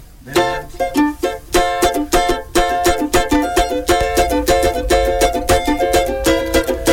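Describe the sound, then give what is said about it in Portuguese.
A recorded samba song plays loud, with brisk, steady percussion hits driving the rhythm under bright, sustained melodic instruments, continuing throughout without anyone talking. “A gente quer ouvir mais uma música, né”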